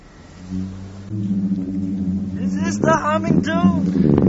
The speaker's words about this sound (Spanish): Es la duna que, que canta, ¿no? Están cayendo por la arena. Es como un lamento de la tierra. Esto es que vamos, parece la vibración de algo, ¿no? La vibración se ha medido, son unos 150 hercios, a veces son 105, a veces son 90,